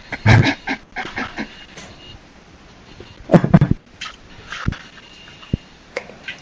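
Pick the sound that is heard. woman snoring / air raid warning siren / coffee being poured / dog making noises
dog making noises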